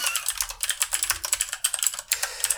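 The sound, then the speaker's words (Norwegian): Rapid, continuous typing on a computer keyboard, a dense stream of crisp clicking keystrokes with brief pauses, no voices present. “Hører du tastaturbrokk?”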